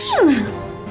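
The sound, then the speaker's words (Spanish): A single loud sneeze: a sharp hissy burst that slides down in pitch into a voiced tail, then fades into quiet background. “Salud.”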